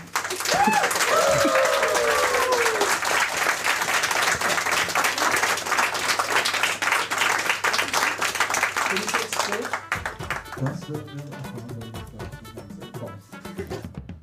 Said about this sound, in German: Dafür vielen lieben Dank für dein Spiel. Der Applaus gehört dir.